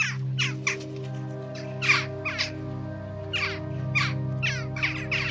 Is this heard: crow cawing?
yes